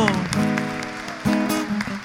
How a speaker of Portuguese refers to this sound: Glória a Deus. Vamos aplaudir esse Deus que é maravilhoso.